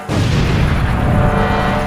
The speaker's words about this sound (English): And once again, everything seems to erupt with showers of sparks and flash powder explosions.